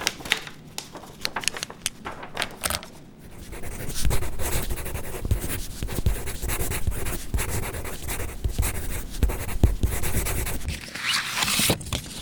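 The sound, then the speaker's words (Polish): A pen scratches steadily across paper as a formal order for an interrogation is written out, with quick strokes, small taps and rustles that run on for several seconds without any talking. “Poproszę o kartkę i długopis.”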